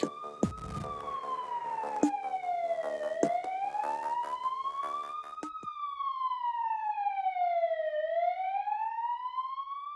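A loud ambulance siren wails continuously as the ambulance drives a patient toward Ullevål hospital. Its pitch sweeps slowly up and down in long cycles, with some rumbling vehicle noise and a few knocks underneath at first.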